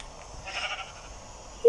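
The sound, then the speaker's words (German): One short bleat from a sheep in a video game whose wool has grown back after shearing, a brief nasal burst that swells and fades over a low, steady background hum, with no talking. “Oh, das Schaf ist wieder dick.”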